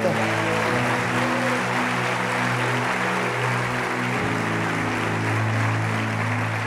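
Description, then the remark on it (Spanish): A crowd claps loudly and steadily throughout, giving a loud round of applause to God, a dense wash of applause over sustained keyboard or organ chords playing underneath. “Si lo crees, dele un aplauso fuerte a Dios, Señor.”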